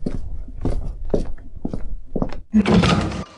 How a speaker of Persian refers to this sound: الان میام در رو باز میکنم زنگمون خرابه